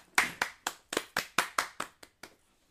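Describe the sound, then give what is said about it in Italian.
A short burst of applause: about ten sharp, crisp hand claps in a steady, fairly quick rhythm, growing softer toward the end, with no voices. “Applauso per Jim.”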